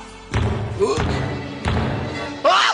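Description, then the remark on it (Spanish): Loud, heavy knocking at a window: four deep thuds at uneven intervals, each followed by a lingering low rumble, with a brief higher-pitched creaking tone near the end. “Vuelto a mi cuarto, mi alma toda abrazándose dentro de mí, no tarde en oír de nuevo tocar con mayor fuerza.”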